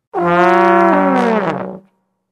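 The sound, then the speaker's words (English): A trombone, played by an angry World War II veteran who does not know how to play it, blares one loud, raw note, held unsteadily for about a second and a half before sagging downward in pitch and cutting off, with no other sounds around it. “what a trombone sounds like, when it is being played by an angry World War II vet who doesn't know how to play the trombone, I can tell you that it is a loud and unfair sound.”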